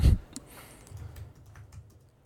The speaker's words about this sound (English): you can hear me uh, typing as I try to figure out what it is.